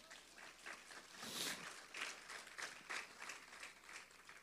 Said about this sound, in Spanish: Den un fuerte aplauso a Dios, hermano.